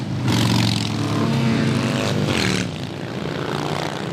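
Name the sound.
motorcycle parade engines roaring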